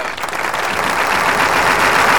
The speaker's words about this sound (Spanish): Bravo, bravo. Un aplauso tardío para el Gach, que se fue también para el Gach. Un abrazo. Radi, Cohen y la... Nada más, dale. ¡Aplauda, guacho, aplauda!